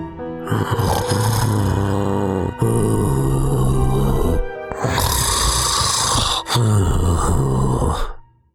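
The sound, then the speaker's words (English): A voice imitates loud, exaggerated snoring, two long rumbling snores with a brief gasp between them, continuous, with no other talk. “A hunter heard the snores and thought it was a bit strange.”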